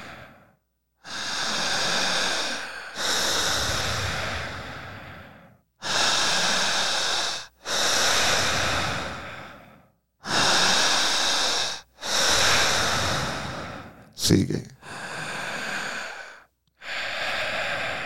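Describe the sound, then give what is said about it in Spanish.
Loud, forceful breaths in a breathing exercise: about eight long, noisy huffs in a steady rhythm with short pauses, plus one brief spoken word of encouragement. “Quienes están observando el podcast, sigan respirando. Fuerte.”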